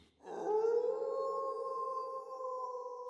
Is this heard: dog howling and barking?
yes